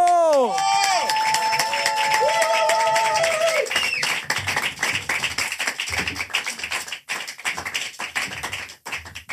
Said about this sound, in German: Wir begrüßen auf dieser kleinen, aber so wichtigen Bühne unseren Stargast des heutigen Abends. Einen großen Applaus